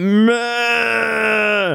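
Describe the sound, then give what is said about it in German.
A single drawn-out bleat from sheep grazing a dike by the Elbe river, a loud, steady mid-pitched baa with a slight waver at the start, lasting almost two seconds with no other sounds around it. “Aber äh, wir hatten Glück und vor allen Dingen wurden wir von den Schafen auch begrüßt.”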